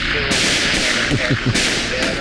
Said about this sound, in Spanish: sí, ahora que estamos aquí casi bailando. los disparos, perdón. los disparos en los pies que nos están dando